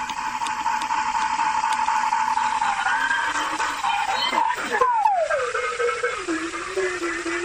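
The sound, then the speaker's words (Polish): A steady electronic tone from an obstacle detector sensing carpet, set to a 5-metre range and played through a loudspeaker: a buzzy layered hum that wavers, then slides downward in pitch partway through before settling lower, holding at an even, moderate loudness throughout. “Ten dźwięk w tej chwili to jest wykładzina.”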